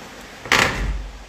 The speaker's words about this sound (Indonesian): Nah, barusan menutup pintu.